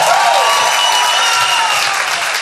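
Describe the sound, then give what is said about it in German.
Steady, loud audience applause for the film Shrek 1 fills the whole stretch, a dense wash of many hands clapping at once with no breaks or voices standing out. “Ein Applaus für Shrek 1, meine Damen und Herren.”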